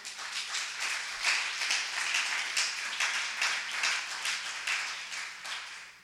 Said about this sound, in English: How many guys are receiving today? Can we give the Lord a clap offering?